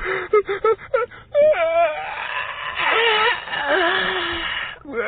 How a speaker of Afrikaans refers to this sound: Karel Kabouter gaan sit op 'n stoel langs Ollie en gee so 'n lang gaap.